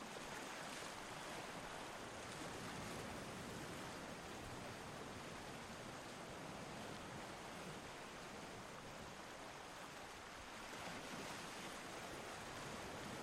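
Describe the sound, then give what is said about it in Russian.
Ocean waves wash steadily along a shoreline, a soft continuous hiss of surf with gentle swells rising and easing, heard quietly on its own with no voices. “Понаблюдайте некоторое время за океаном, его ровным, вечным движением вдоль берега.”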